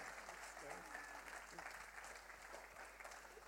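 An audience applauds steadily for about three and a half seconds, a dense, even wash of many hands clapping with no clear pauses, and faint voices mixed in underneath.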